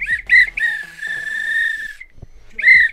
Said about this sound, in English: This was a real bit of extra time. This is when the referee blew the whistle because it's finished.